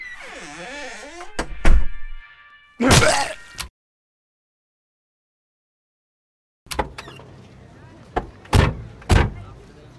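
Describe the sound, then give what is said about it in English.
A door swings shut with a solid thud, followed by a brief stretch of silence and then a few scattered knocks and clatters in the background. “Get the door”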